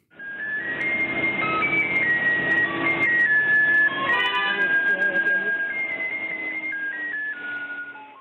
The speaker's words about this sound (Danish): Der er altså mange, øh, det er altså mange af gasvognenes kendingsmelodi, når de ligesom øh, en form for hjemmesbilen ligesom øh, kører rundt i lokalområdet og tilbyder de her gasflasker, som man altså i høj grad bruger i hjemmene i Jordan.